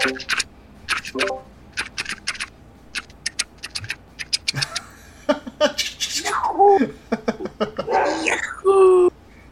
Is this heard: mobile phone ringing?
no